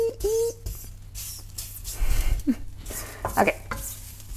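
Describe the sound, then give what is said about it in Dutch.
Food sizzles steadily in a hot frying pan on high heat, a continuous hiss broken by scraping and clinking as the contents are stirred, with a few faint vocal sounds in between. “Dan had ik dan echt op hoog vuur staan. En nu kijk ik even wat me uitkomt. Oh, hij, staat namelijk al een poos aan.”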